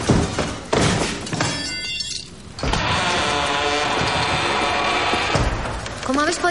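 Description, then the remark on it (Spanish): A man in armor runs at a door and slams his body into it with a loud thud, then a second crashing impact follows as he falls to the floor, with a metallic clatter over a dense, busy background. “El hombre con la armadura corre hacia la puerta, se chuta contra esta y cae al suelo.”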